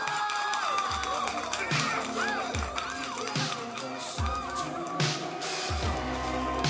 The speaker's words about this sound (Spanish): Acá … gritó, saltó en la casa de los Rangers y los fanáticos de los Rangers, Lo aplaudieron y todo.